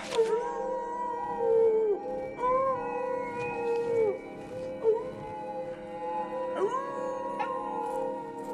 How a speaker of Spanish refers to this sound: Cuando la puerta empezó a abrirse, los aullidos de los lobos en el exterior se hicieron más violentos y furiosos. Sus rojas mandíbulas daban dentelladas en el aire y sus embotadas pezuñas se metían por la abertura de la puerta.